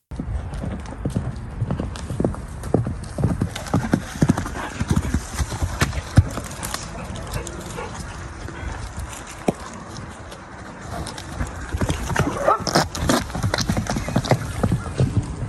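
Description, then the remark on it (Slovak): Horse hooves clip-clop steadily in an uneven walking rhythm, with a short whinny rising near the end over faint outdoor background noise. “Príde, kopne si, zasmradí priestor a ide preč. Presne ako tento kôň.”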